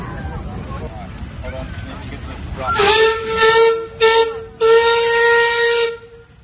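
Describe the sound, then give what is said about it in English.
A steam locomotive passes on a railway as many people wait to board the train, its shrill whistle blowing in several long blasts with brief gaps, over a rumbling, hissing background where faint voices can be heard at the start. “Uh, it's great to see the engine going past us and uh, so many people waiting to go on this train.”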